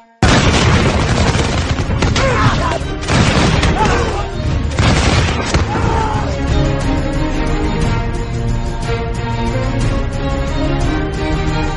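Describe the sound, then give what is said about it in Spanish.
A loud volley of arquebus gunfire, fired from the top of a temple's stairs at Mexica warriors climbing the last steps: several sharp cracking blasts bunched over the first few seconds, followed by a long, sustained rumbling roar with a ringing, droning tone. “Con las mechas humeantes esperábamos que los mexicas subieran los últimos peldaños. En cuanto varios de ellos subieron prestos con sus armas, abrimos fuego.”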